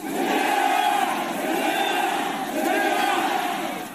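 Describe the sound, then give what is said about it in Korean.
A large crowd of fishermen from across South Korea chants slogans in unison in front of the National Assembly, protesting Japan's release of contaminated water from the Fukushima nuclear plant; a loud, sustained mass of voices rising in two rhythmic swells with no break in between. “일본 오염수 방류가 초읽기에 들어간 가운데 전국 어민들이 국회 앞에 모여 오염수 방류 반대 목소리를 높였습니다.”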